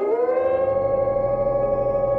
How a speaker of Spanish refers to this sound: Ahora escucho también un siniestro aullido.